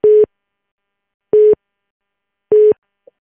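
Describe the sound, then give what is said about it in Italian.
A telephone busy tone on a jammed call line repeats three times at an even pace, each steady beep lasting about a quarter second with long silent gaps between, loud and clear with no voices. “Ecco, abbiamo le linee intasate.”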